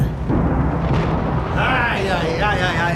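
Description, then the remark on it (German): A loud, deep rumbling thunder crash rolls on after a flash of lightning on a gloomy morning, over a steady wash of rain beating against the windowpanes, for three seconds, with faint voice-like tones surfacing partway through. “Donner krachte und Regen prasselte an die Scheiben.”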